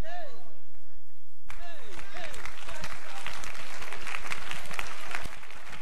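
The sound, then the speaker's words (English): An audience breaks into loud, dense clapping after a brief spoken line, the many hands rattling steadily to the end while a voice calls out over the start of the applause. “Now, if a girl is not clapping, ask her, Do you have a key?”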